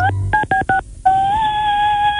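A short run of phone keypad beeps, four quick dual tones followed by a longer sustained tone, forming a little melody played on a phone's keys; clear, with no talking.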